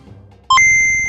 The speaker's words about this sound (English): Calculating computer activated. Computers. Beeps. Boots. Scoring complete.